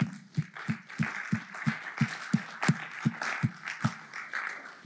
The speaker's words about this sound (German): Wow, mega. Lass uns den Leuten einen Applaus geben, ist großartig.